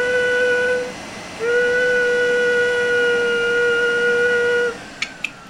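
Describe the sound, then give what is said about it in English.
A vacuum cleaner drones with a steady, whistling motor whine, running briefly, cutting out for a moment, then running again for several seconds before shutting off, followed by a couple of sharp clicks. “you don't mind if I uh, do a little uh, vacuuming right now?”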